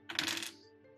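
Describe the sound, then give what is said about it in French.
A die clatters onto a hard tabletop in a quick, bright burst of rattling taps, then settles with a faint ringing tail. Moderately loud, with no voices. “C'est 14, mais avec ton dé magique également.”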